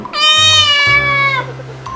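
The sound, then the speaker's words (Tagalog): A single drawn-out cat meow, as if the cat is looking for food, loud, with a clear rising then steady tone lasting over a second before trailing off. No one speaks. “Di nagtagal, Gumiyaw ang pusa na tila naghahanap ng pagkain Sinuman kinakaugong at kamaldang ay di nagbigay pansin sa kanyang niyaw.”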